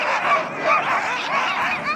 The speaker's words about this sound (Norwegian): I hundegården på Alta folkehøgskole står et kobbel med ivrige hunder.